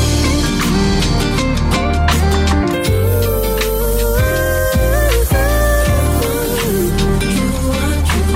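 A loud, full pagode-style song plays continuously, with a sung vocal melody over steady bass, strummed accompaniment and driving percussion throughout.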